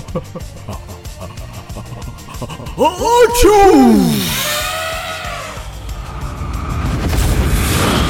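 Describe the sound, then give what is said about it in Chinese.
A huge, cartoonish sneeze by an elephant on a canoe: a wobbling, swooping tone climbs and then drops into one loud explosive blast, trailing off into a long rushing whoosh over a busy rhythmic background. “大象打了一个世界超级无敌霹雳夸张 biang biang 的超级大的喷嚏，哈啾的声音超越飞过地球了，飞到了外太空，”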